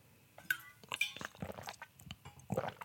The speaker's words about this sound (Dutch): Ik doe even een micropauze en neem even een slok water. Ook dat is een micropauze. Om even een slok water te nemen en even te merken. Even echt te proeven, dit water.